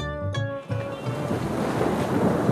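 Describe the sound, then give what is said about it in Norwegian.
Sea waves wash and churn steadily as heard from the deck of a cruise ship, a broad rushing surf with wind, preceded by a brief tonal hum at the start; no one speaks. “De er på cruise. Det vil si, ekteparet Debit er på cruise.”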